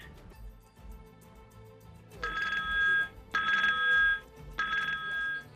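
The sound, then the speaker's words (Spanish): Telephones ringing at the EITB Marato telethon call centre, where donation calls are received, in three loud, bright bursts of trilling electronic tone, each lasting about a second with short gaps between, over a low murmur of background activity. “es el sonido que tiene la cara más solidaria de nuestro país.”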